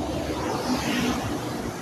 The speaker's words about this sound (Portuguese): Passando aqui na rua e estão passando vários carros, então o barulho vai ser impossível não ter.